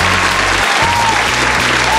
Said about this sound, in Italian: Ehm, beh, intanto però, come dire, iniziamo con un bel applauso, così, per iniziare bene la puntata.